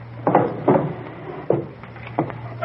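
A wooden drawer holding a gun is pulled open with a few short knocks and rattles, spaced irregularly over a few seconds, with a low steady hum in the background.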